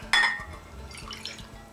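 A sharp clink of a bowl, then about half a cup of water poured in with a soft, steady trickle that fades in and out, fairly quiet, with no one talking.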